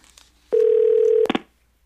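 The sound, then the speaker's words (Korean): A steady telephone tone holds for under a second, then a couple of quick, loud dialing beeps follow before silence, as someone calls a former partner while drunk. No voices are present. “그러다가 술에 취했던 어느 날 헤어진 연인에게 술 먹고 전화하는 걸 최고의 진상이라도 말하던 내가 그 짓을 하고 있었습니다.”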